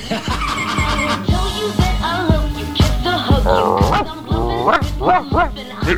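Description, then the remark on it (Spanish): A person imitates a dog, letting out a string of loud, repeated yapping barks in a steady rhythm over a thumping, busy background. “Mira que bien que hago el perro. Hago de todo, ¿eh? Le limpio la casa, ladro, muevo la cola.”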